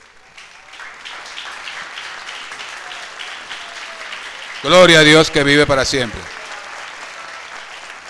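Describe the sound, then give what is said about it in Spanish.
A church audience applauds the Lord in a steady, sustained wash of clapping that lasts the whole clip, while a loud man's voice briefly speaks over it midway through. “Denle un aplauso, por favor, al Señor.”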